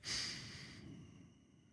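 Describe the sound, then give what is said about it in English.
A slow, deep inhalation drawn in through the nose or mouth, breathy, swelling quickly and then tapering off over nearly two seconds with no talking. “All right, here we go. I'm breathing in.”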